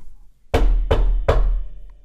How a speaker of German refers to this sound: Es war eines Tages in einem Dezembermorgen, als beim Prinz die Tür klopfte.